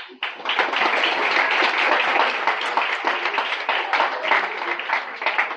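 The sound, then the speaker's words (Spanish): Audience applause at a school book meeting with students fills the whole stretch: dense, steady clapping from many hands at an even loudness, with a faint murmur of voices underneath. “Venga, un aplauso.”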